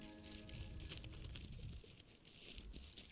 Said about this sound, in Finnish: sen jälkeen me menemme kuulemaan jo legendaariksi kuultuja ison kirjan kahina ääniä ja menemme siihen lyhkäisen tämmöisen äänimaiseman kautta.